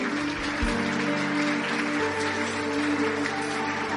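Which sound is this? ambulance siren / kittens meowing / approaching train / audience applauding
audience applauding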